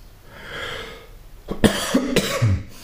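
A soft breathy hiss gives way to two or three short, harsh coughs with a rough throaty edge, fairly loud and with no talking.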